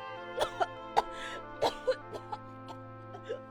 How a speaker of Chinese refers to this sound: 他越哭越厉害，甚至咳嗽了起来。